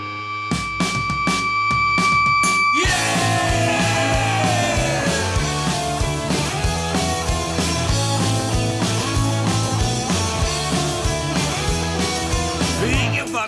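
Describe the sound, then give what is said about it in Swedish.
An energetic, upbeat rock protest song plays loud and steady, with a driving beat and dense, gritty distorted guitar, opening with a sustained tone over sparse hits before the full band kicks in; no one speaks. “Framförallt som sagt kanske utmana mig själv att skriva en positiv låt.”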